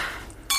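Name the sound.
wine glasses clinking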